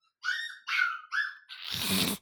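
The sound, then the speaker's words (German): A tiny young dog weighing about half a kilogram squeaks and whimpers in three quick high-pitched cries, followed by a longer, rougher whining yelp, fairly loud with no talking. “Dieses Quietschen der Etwas, das ist das kleine Mini-Fifi-Hundchen.”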